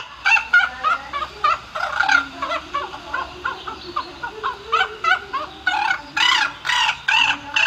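Rooks caw harshly and repeatedly, their raspy calls overlapping in a busy, continuous chorus that sounds like several birds calling, with no one speaking.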